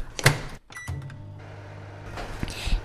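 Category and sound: household object, microwave oven running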